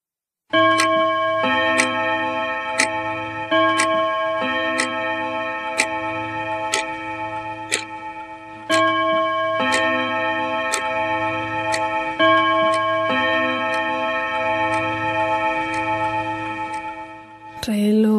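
A clock ticks sharply at a steady pace, roughly once a second, over a sustained bright ringing hum that carries on throughout before stopping abruptly at the end.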